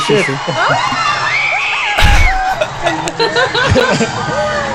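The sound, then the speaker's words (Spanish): Loud, continuous shouting and screaming from many voices at once, overlapping into a dense crowd roar with shrill rising cries and a brief low thump near the middle. “Ah, empiezan los gritos.”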